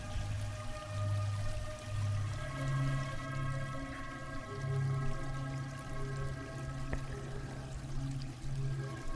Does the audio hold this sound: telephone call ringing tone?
no